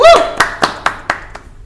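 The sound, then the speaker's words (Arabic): A brief vocal whoop, then five sharp claps from the audience as a person walks out, in a steady, evenly spaced rhythm, each crisp and bright, the last one softer as the clapping dies away. “سقف الجمهور وهو خارج”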